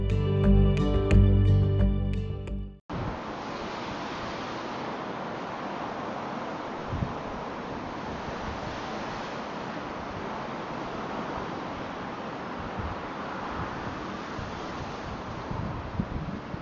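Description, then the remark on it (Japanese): A steady, dense roar of city traffic fills the scene, a broad continuous wash with no clear individual vehicles, preceded by a brief burst of music at the start. Recorded beside the slow-flowing river at Yodoyabashi in Osaka, Japan, where the river itself cannot be heard over the cars. “もう川の音聞こえへん車の音しかないやんザーってこれ雨かなと思うでしょこれずっとあの言うたら淀川のところ淀川ちゃうわ、えっと、淀屋橋ですよ淀屋橋のところに川流れてますよねあそこで、まあ、撮ろうと思って撮ってたんですけれども”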